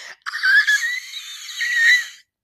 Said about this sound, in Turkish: Ben, bana endişe veren yanı ben çığlık atamıyorum. Bakın şimdi çığlık atmaya hazırlanıyorum ve deniyorum.